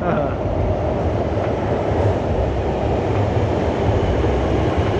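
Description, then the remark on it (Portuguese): A subway train heard from inside the car, with a loud, steady low rumble and roar that holds constant throughout the few seconds, with no pauses. “é engraçado, a gente tende a ignorar o som do metrô quando tá no metrô.”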